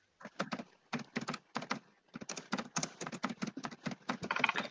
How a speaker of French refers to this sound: Et là, on t'entend taper à fond.